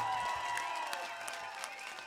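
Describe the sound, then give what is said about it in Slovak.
A crowd at a house music event applauds the technicians and bar staff steadily, dense overlapping clapping holding at an even level throughout, with a thin whistle and scattered cheers rising above the noise. “Ja vás poprosím, je veľmi dôležité, aby sme zatleskali teraz všetkým technikom, SBS-karom a všetkým, ktorí sa o vás starajú, barmanom, barmankám.”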